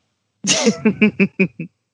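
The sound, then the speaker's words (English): A sharp sneeze bursts out, followed right away by four or five short, rapid throaty bursts that quickly fade, with no talking around it. “ah, bless you.”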